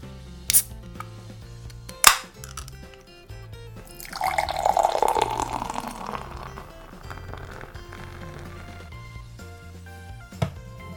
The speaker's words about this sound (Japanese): 今回のねこのビール期待が膨らみますそれでは開けてね飲んでいきます